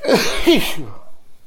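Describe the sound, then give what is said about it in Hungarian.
A single sneeze, fairly loud: a quick voiced build-up and a breathy, hissing burst, then it trails off into quiet. “Egészségére”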